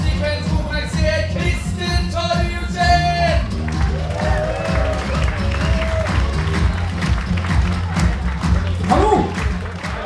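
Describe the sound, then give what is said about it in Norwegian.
Steady, dense applause from the audience at a summer stand-up comedy show at Latter fills the whole stretch, a loud crackle of many hands clapping, with scattered cheers and whoops and a tonal, musical layer early on. “Gi et varmt applaus”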